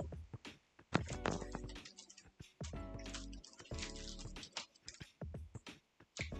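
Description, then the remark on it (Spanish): Hail clatters down in a dense, irregular patter of sharp ticks and taps, loud, striking hard surfaces with a low, steady hum beneath. “escucha, por favor escuchen el granizo.”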